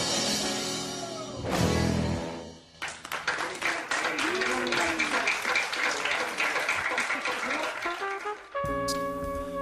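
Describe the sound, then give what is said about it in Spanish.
A small group breaks into steady, dense applause for the mother, lasting several seconds, following a moment of voices and tonal sound, with a brief tonal sound returning as the clapping ends. “Un aplauso para la madre.”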